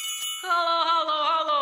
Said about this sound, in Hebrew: הבית של השרה היה מיוחד מאוד, עם גג עגול, חלון כחול, שתי ציפורים מימין ומשמאל, פעמון זהב גדול ודלת יפה בצורת מפתח סול. צלצל הכנר בפעמון.